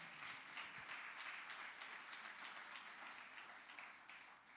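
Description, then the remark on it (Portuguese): A religious audience, called on to applaud the Lord, applauds vigorously and continuously, dense overlapping claps filling the space for several seconds at a steady, loud level before easing slightly at the end. “Quem crê nisso, aplauda bem forte o Senhor.”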